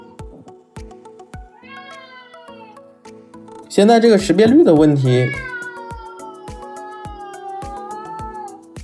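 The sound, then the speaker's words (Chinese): A domestic cat meows several times while its owner talks during a recording, with one loud, drawn-out, wavering yowl in the middle and softer, higher meows before and after it. “我家猫可能不是很开心，我在这一直录音不理它。”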